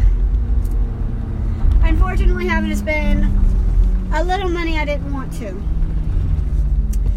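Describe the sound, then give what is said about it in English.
Steady low rumble of a truck rolling along a road, heading home from town, fills the background, constant, while a man talks over it. “But before I get started, the rolling noise you hear in the background is just my truck.”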